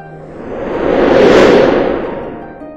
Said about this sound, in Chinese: 巨人盘古一呼吸，空气中就会有风；